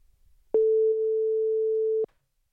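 A single steady telephone ringing tone, a pure mid-pitched hum held loud for about one and a half seconds with clicks at its start and end, then silence.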